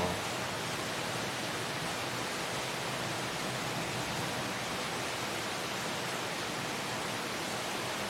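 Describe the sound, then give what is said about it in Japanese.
Heavy rain from a thunderstorm squall in Singapore pours down in a steady, dense hiss that fills the whole clip without a break, with no voices. “そうそうでも確かに来る前にスコールが多いとは聞いてたんですよねうん土砂降り土砂降りですねなんかなんて表現したいんだろうバケツひっくり返す感じではないんですけど、うん、傘がないともう完全に濡れてる感じですね”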